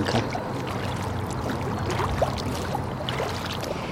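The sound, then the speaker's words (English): Water sloshes and splashes steadily as someone wades through the shallows of the Ovens River in Taungurung country, with irregular step-like surges over a continuous rushing flow. “I'm walking in the shallows of what's now known as the Ovens River in the borders of Taungurung country,”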